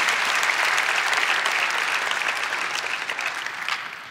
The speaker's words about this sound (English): By the way, I think that deserves a clap to the Lord right now to say thank you for your ability to restore us.